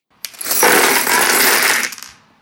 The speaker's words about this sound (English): It was ice cubes. Uh, was it ice cubes? Yeah, we were pouring ice